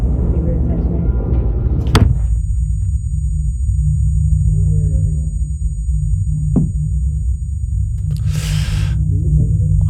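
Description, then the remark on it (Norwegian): Muffled, simulated sudden hearing loss: sound collapses into a dull, throbbing low rumble with the highs stripped away, a couple of sharp clicks and a brief hiss breaking through faintly. “Hvis man mm. skulle gjette hvordan det er, og plutselig miste det, så ville jeg gjette noe sånt som det.”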